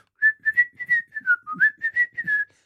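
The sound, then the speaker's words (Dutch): Someone whistles a short Mexican-style western melody, about a dozen crisp, evenly paced notes rising and falling. It sounds clear, with no talking. “Er had gewoon een fluitje ondergemoet of zo. Gewoon een Mexicaanse...”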